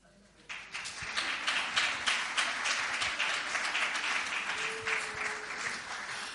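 Audience applause for the women, asked of the men, starts abruptly and continues steadily, a dense wash of many hands clapping at an even, sustained loudness with a faint brief tone partway through.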